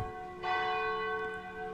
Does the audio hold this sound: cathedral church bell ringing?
yes